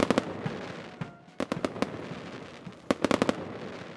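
Fireworks crackle and bang in quick bursts on 3 October during the Leiden Relief (Leidens Ontzet) celebration in Leiden, Netherlands: a cluster at the start, another in the middle and a rapid volley near the end, over a steady rumbling background with no talking.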